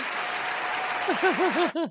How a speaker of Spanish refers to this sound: Tremendo chiste. Un aplauso para ese chiste. Se lo merece.